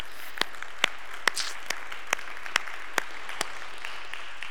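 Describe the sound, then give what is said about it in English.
Audience applause after a song, coming through as sparse, steady claps, roughly ten sharp hand claps evenly spaced at a moderate tempo, with faint scattered clapping between them and no talking. “We can, yeah, you can clap for that.”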